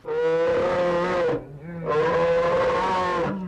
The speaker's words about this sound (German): Braunbären, Eisbären, Schwarzbären, sie klingen alle etwas anders. Der Eisbär so. Der Braunbär so.